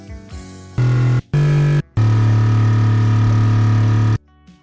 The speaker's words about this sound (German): Zusätzlich mussten wir den Startpunkt aus der Originaldatei auswählen. Das ist dann genau der Moment, ab dem das Sample abgespielt wird, wenn man die Taste auf dem Keyboard drückt. So klingt jetzt unser Kaffeemaschinen-Bassinstrument.